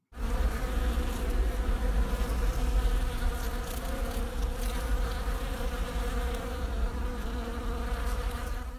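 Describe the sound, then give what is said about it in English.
A dense, steady hum of many early honeybees buzzing around clematis flowers in Joe Pontin's garden, recorded in early January, a continuous droning swarm that holds at an even loudness for the whole stretch, with no voices. “This one contains some very early bees, and they are buzzing round the clematis in the garden of Country Magazine colleague Joe Pontin.”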